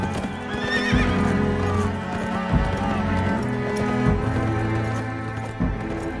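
A horse whinnies loudly at the start, then heavy hooves clip-clop and thud at a slow, uneven pace, with more horse snorts and neighs layered throughout, prominent.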